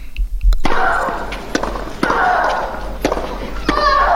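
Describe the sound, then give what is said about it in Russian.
Sharp pops of a tennis ball being struck by top players ring out every second or so in a steady rally of a big tennis match, set against a constant wash of background noise and low rumble. “Да, ну это теннис уже такой.”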